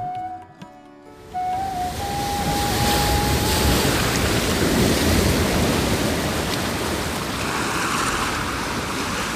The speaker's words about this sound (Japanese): ブラフマーの言葉に従い神々とアシュラたちが凄まじい力で竜王バースキの体を引っ張ると曼荼羅山は大回転し海が嵐のように波打った